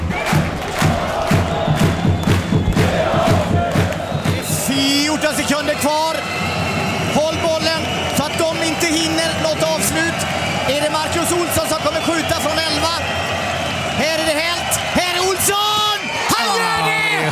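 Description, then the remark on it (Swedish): A packed indoor handball arena roars continuously and loudly while a man's voice shouts excitedly over the din, another man also standing and shouting amid the noise, the crowd never letting up. “Och mitt i allt det här draget står … och skriker också.”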